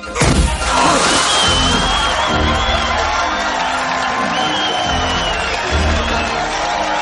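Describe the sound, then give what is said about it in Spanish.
A balloon filled with white paint, pierced by a man with a car key, bursts with a sharp, wet pop right at the start, covering him and his new car in paint, followed by a crowd cheering and whooping loudly for several seconds. “pero el globo estaba lleno de pintura blanca. Al romperse le pone perdido a él y a su flamante coche.”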